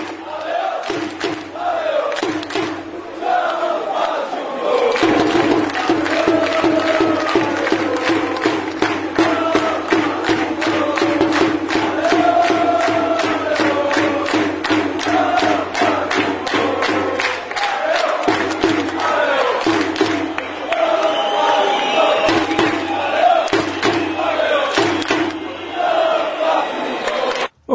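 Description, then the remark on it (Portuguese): A large stadium crowd of football fans at a Portugal versus Azerbaijan match chants loudly and continuously, with rhythmic clapping or beats punctuating the chant throughout, voices blending into a dense, roaring wall of sound. “Vamos ouvir então um áudio colhido num Portugal e Azerbaijão.”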